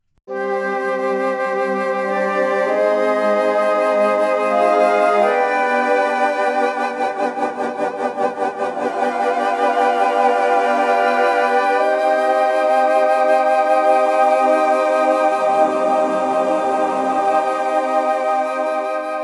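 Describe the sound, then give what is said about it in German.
The Andromeda's Voice synthesizer preset from the Augmented Woodwinds library, with soft, breathy woodwind-like tones, plays chords that shift every few seconds, rich in harmonics and steady in loudness, with no talking. “Auch für mich neu sind die Augmented Woodwinds und wir fangen an mit Andromedas Voice.”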